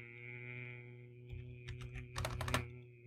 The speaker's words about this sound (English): Ignore the keyboard.